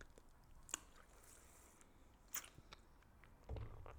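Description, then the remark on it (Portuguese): Soft mouth sounds of a thirsty woman sipping and swallowing water: a few wet clicks and gulps spaced out over a few seconds, quiet and with no talking. “Vou beber mais um bocadinho de água que estou sequiosa hoje.”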